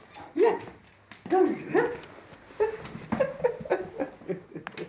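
A small grey miniature schnauzer named Jippi barks and whimpers in short, high-pitched bursts while playing with its 92-year-old owner in a bright apartment on Grefsenkollen in Oslo, a series of yips and whines coming in irregular clusters over a few seconds.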